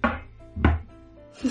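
Three heavy knocks on a table, spaced unevenly over about a second and a half, each a dull low thud with a short ring, with no voices.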